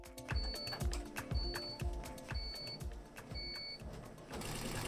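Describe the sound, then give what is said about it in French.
A four-head embroidery machine runs steadily in the Fishbrain screen-printing workshop in Angers, Pays de la Loire, its needles chattering with heavy low thumps about once a second and a recurring high whine, then a louder burst of hissing noise near the end. “Donc là, j'ai lancé la brodeuse 4 euh, têtes.”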